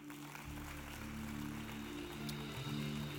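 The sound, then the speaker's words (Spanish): A steady wash of crackling applause from a crowd fills the whole stretch, even and sustained without clear peaks, with a low humming tone underneath and no voices. “denle un aplauso.”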